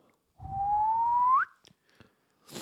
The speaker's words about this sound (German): Kannst du nicht pfeifen? Ich habe ein bisschen trockene Lippen heute, weil ich heute Rad gefahren bin.